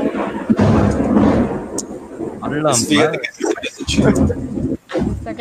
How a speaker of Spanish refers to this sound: tan buenos los truenos, ¿eh? Está bueno, ¿eh? Se, escuchó así de terror, güey, de el torito.